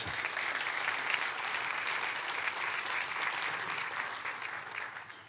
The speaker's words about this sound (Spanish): ¿Cuántos desean en el 24 llegar a lo que Dios quiere de su vida? Dele un aplauso a Dios entonces por eso.